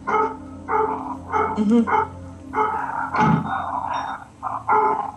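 Several dogs from the two neighbouring houses bark in a rapid, overlapping series of loud yaps, with a low growl mixed in partway through. The barking is continuous for about five seconds, with no talking.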